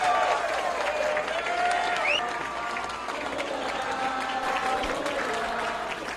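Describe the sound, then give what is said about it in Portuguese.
A large crowd, standing, gives a big round of applause for Luiz Inácio Lula da Silva; cheers and scattered shouts rise above the dense clapping, staying loud and sustained throughout with only a slight easing toward the end. “Gostaria de todo mundo ficasse assim em pé, desse uma grande salva de palmas.”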